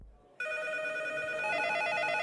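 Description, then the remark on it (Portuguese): A telephone at Sony Computer Entertainment starts ringing abruptly and keeps ringing steadily with a bright, warbling electronic trill, loud, with no voices, as game companies call for details about the PlayStation. “No dia seguinte, os telefones da Sony Computer Entertainment não param.”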